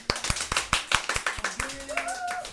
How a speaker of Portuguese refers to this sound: Podem bater uma palmas.